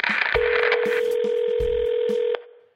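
A steady telephone dial tone hums for about two seconds with quick dialing blips and clicks over it, fairly loud and close, then cuts off abruptly. No one speaks.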